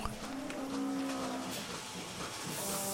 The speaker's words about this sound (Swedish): Ja, nu är vi inne i kostallen där mjölkkorna bor. Och här står det en ko och blir borstad på ryggen av en stor borste.